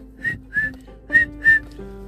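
Four short, bright whistled notes in two pairs, each a clear steady tone, fairly loud over a faint low background hum, with no talking.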